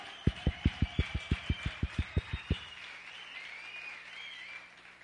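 Audience applause at a morning session of Sri University, in a steady, even rhythm: about a dozen sharp claps in unison over roughly two seconds, then it stops and only a faint background hum remains. No one speaks.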